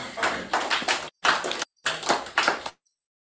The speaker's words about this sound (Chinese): 爽，自己鼓掌。